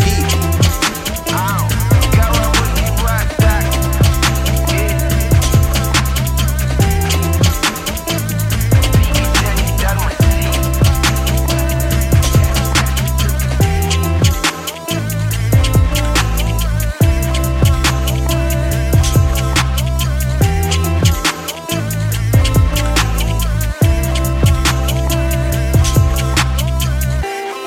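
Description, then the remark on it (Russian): A loud, bass-heavy Brazilian favela funk rap track plays throughout, with punchy repeating low-end pulses and dense layered beats driving a steady, energetic rhythm. “Слушайте, на самом деле мне песня очень прям понравилась.”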